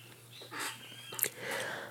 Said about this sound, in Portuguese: Os passarinhos cantando.